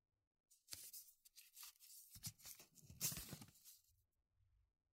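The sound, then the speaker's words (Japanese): Crisp crackling and rustling of torn paper strips, made into arms and legs, being pressed onto the sticky back of curing tape, in irregular bursts for a few seconds with a slightly louder crinkle near the end, then quiet. “紙の端を私の体の裏側のベトベトに貼り付ける。”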